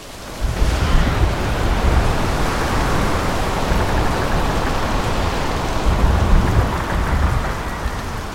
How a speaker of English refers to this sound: This was Tropical Storm Haiyan, which the Filipinos called Yolanda. A massive typhoon swept through the eastern part of the islands and killed more than 6,000 people.